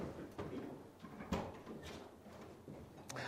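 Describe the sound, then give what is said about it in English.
A top door at a church is unlocked and pulled open: a few sharp mechanical clunks and latch clicks, with low shuffling and handling noise between them and no talking. “can you open that, unlock that top door for me?”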